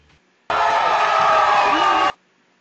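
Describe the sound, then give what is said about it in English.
A big crowd cheers loudly in a dense, steady roar of voices and whoops that starts abruptly, holds for about a second and a half, then cuts off sharply. “You like that big old crowd?”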